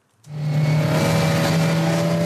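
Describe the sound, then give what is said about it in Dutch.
A powerful motorboat engine kicks in and roars steadily at full throttle to keep up with sailing catamarans in the Netherlands, a loud, sustained drone with a deep hum and a broad rushing noise, no voices. “Met de motorboot moeten we voluit om de zeilers bij te houden.”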